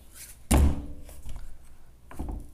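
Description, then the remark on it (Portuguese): A loud thud lands on a wooden door, booming low, then a softer second bump follows moments later. No one speaks. “Eu agora, cara, eu tenho uma porta.”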